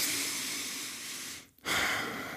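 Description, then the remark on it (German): A long, steady, airy deep inhale of fresh air lasting over a second, then a brief silent pause before a second breathy rush of air begins. No talking. “Kennst du das, wenn du irgendwie mal aus dem aufs Land fährst und dann aus dem Auto aussteigst und oder aus dem Zug und dann das erste Mal so ein bisschen Luft holst und dann so”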